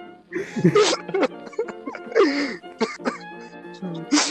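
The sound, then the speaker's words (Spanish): A few raspy coughs and throat-clearing bursts recur over a few seconds, mixed with muffled vocal sounds in the background. “no, oiga, oiga, sigo escuchando la tos de fondo, no se haga el weón.”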